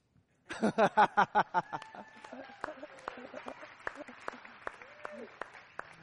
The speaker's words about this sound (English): Can I just release you? We can clap.